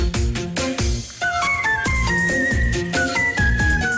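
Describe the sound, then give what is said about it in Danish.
A 6-year-old girl from Ukraine whistles a bright, clear melody over steady, rhythmic musical accompaniment, holding long sustained notes and stepping between pitches, prominent, with no talking. “Hun er 6 år, og hun fløjter som en drøm.”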